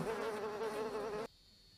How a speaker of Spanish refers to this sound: Y las moscas que aumentan, que son ensordecedoras, que te avisan lo desconocido y se acercan.